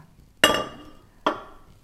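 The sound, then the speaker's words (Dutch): Two sharp clinks of a blender being taken out of a sink, hard glass or plastic against the sink, the first at about half a second and the second just under a second later, each ringing briefly before fading. “Blender kan even”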